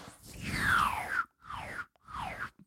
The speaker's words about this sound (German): Das klingt schon so, Paketband. Ja, das, das macht auch so kratz, kratz. Ne?